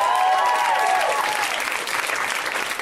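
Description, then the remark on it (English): A comedy show audience applauds comedian Rhea Butcher loudly and steadily, a dense wash of clapping, with a brief whistle-like tone fading out in the first second. “Let's hear for Rhea Butcher.”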